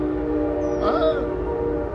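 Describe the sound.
A train rumbles steadily, with sustained horn-like tones droning over a low, heavy roar; a voice briefly murmurs partway through.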